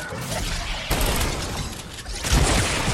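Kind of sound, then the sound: sound effect, video game explosions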